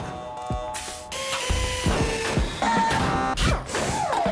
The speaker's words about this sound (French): Nous écoutons à présent l'opus industriel au symphonique de l'usine de Valenciennes.